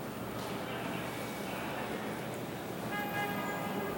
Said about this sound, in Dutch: Nee, volgens mij is het weer het toetertje van net. en het koor.